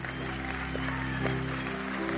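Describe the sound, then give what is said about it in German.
Audience applause, a steady dense wash of many hands clapping for about two seconds, with sustained low musical tones humming underneath. “Lasst uns jetzt mal einen riesen Applaus geben.”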